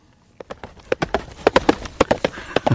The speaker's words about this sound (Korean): 사극에서 가끔 보죠. 말 달리는. 예, 말발굽 소리입니다. 다그닥 다그닥 소리.